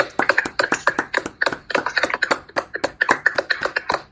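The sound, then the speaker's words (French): A small group of people applauding at 8 pm in tribute to healthcare workers, with sharp, rapid claps overlapping in an uneven patter that stays steady and fairly loud for about four seconds, with no talking. “Je vous propose qu'on applaudisse en live tous ensemble si vous voulez bien.”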